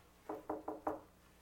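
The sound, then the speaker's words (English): Four quick, evenly spaced knocks on a wooden office door, fairly soft, with no voices and near silence after the last rap. “I go back to my office and I hear this knock on the door.”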